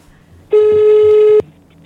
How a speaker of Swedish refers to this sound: Ja, men nu ringer vi.